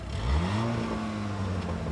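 A truck engine turns over and revs up between 5 and 6 o'clock as the driver gets in, its low rumbling tone climbing in pitch and then settling into a steady, fairly loud idle, with no voices. The truck hauls loads such as sugar beet, lime and recycled glass for a small family business.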